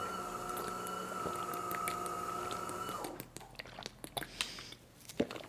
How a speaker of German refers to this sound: Also alle einen großen Schluck trinken, wie ich es auch gerade tue.